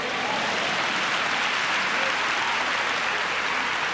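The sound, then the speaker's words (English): Steady, dense applause from an audience giving a round of applause to the Lord fills the full four seconds, a continuous wash of many hands clapping at an even loudness with no voices rising above it. “Give a Lord a round of applause.”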